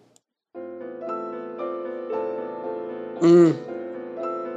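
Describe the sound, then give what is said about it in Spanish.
Dramatic music for the final boss of a video game, with sustained, organ-like synth chords shifting every second or so, punctuated by a loud, wavering swell near the end; a brief murmur comes just before it starts. “Y el jefe final del juego suena así.”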